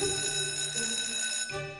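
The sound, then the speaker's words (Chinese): A school bell rings continuously to signal the end of class, a bright, steady metallic ringing with sustained high tones that holds loud throughout, dipping briefly before carrying on. “这时。一阵铃声将葫芦老师从尴尬的气氛中拯救了出来。”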